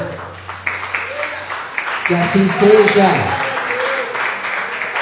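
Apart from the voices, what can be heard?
audience applauding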